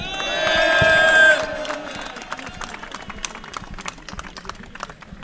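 A large crowd at a rally yells and cheers loudly for the first second and a half, then the roar drops into scattered clapping and softer crowd noise.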